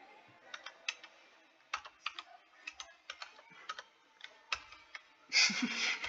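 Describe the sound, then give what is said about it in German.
Typing on a computer keyboard with a French layout: a run of sharp, irregular key clicks spread across several seconds, ending in a louder, denser burst of clattering at the finish. No one speaks. “Nein, nein, das ist eine französische Tastatur, die gibt's.”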